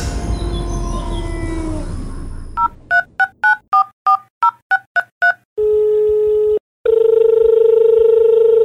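A quick run of about ten telephone keypad tones beeps in steady rhythm as a TV programme calls its guest, followed by a steady dial tone that breaks briefly and resumes louder. Some brief noise and tones precede the dialing.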